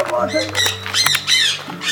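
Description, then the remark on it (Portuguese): A sparrow squawks and chirps repeatedly in harsh, bright bursts, fairly loud, with a low steady hum in the background. “Pardal!”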